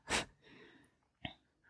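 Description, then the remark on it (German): A single loud sneeze bursts out at the start, trailed by a breathy exhale and a short, sharper sniff-like sound a moment later. “Gesundheit.”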